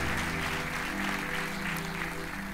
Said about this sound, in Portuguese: Você pode aplaudir ao Senhor por essa pessoa que teve essa atitude.